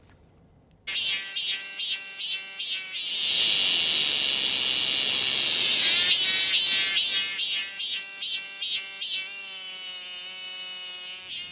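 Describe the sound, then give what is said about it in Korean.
A Korean robust cicada (chammaemi) sings loudly, starting with rapid rhythmic pulses, swelling into a steady buzzing drone, then returning to repeated pulsing phrases. No voices are heard. “자, 그러면 다음으로는 참매미, 참매미.”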